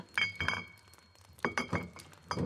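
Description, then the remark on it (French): A glass jar of stories clinks and rattles as its lid is worked open in a workshop in the forest, with several bright knocks of glass against glass in quick clusters. “Et lorsque Pygmalion arrivait à son atelier dans la forêt, Nicolas ouvrait un bocal d'histoires.”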